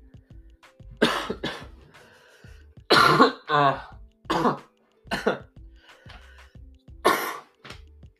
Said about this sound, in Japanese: あはい、咳をしてすみませんでした。